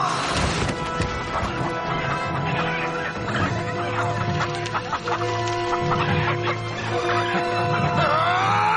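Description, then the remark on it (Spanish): A crowd of caged chickens at a market clucks and squawks continuously, dense, with agitated overlapping calls and some clattering as a man is knocked down onto the cages full of hens. “Espinosa lo ataca y lo hace caer sobre las jaulas llenas de gallinas”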